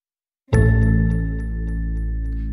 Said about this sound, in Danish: Ja, der fik jeg ikke lige spillet den skiller helt rigtigt. Vi håber, jeg kan få spillet dem rigtigt senere hen i udsendelsen.